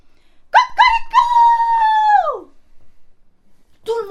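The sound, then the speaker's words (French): A rooster crows once, loud: two short clipped notes, then a long held call that slides down and fades. A brief start of another call comes right after a short pause. “Et dès que le jour se leva, au premier chant du coq,”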